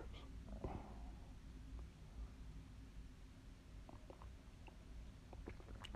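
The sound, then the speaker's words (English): A dog licks bed covers with soft, wet smacking clicks, scattered irregularly over low, steady background rumble. The sounds are faint, with no voices present. “It's my dog in the background.”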